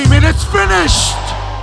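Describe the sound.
A church audience shouts loudly together a Spanish cry of victory, "consumado es," voices rising in a sustained, excited cry over a steady low hum, then trailing into a noisy rush of overlapping calls.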